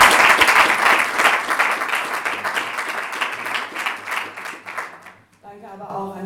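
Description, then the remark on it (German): An audience at an event in Freiburg applauds loudly to welcome a fan project worker from Munich, a dense wash of many hands clapping that gradually thins out over about five seconds before a voice begins speaking. “Genau, das äh, vielleicht auch kurz mit einem Applaus”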